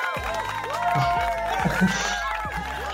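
A crowd cheers and applauds steadily for about three seconds, with rising and falling whoops and shouts over a dense, continuous wash of clapping and voices.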